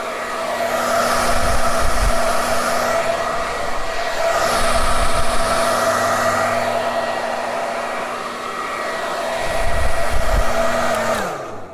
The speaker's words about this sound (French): On va ben, maintenant, le sèche-cheveux.